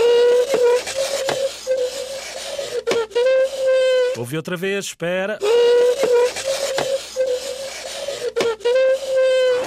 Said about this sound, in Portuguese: Ou será alguém a arrastar uma cadeira? Isso mesmo, alguém a arrastar uma cadeira. Incrível, não é?